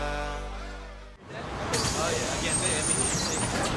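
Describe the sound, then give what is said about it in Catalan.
A bus engine idles with a low, droning rumble, then a loud burst of air-brake hiss bursts out and holds steady, a faint whistling tone gliding through it. “Això és un autobús, tu.”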